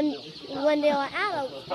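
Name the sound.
chickens clucking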